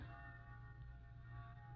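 A church bell rings with a long, sustained metallic resonance that hums steadily without a break, heard faintly over a low rumbling background and no voices.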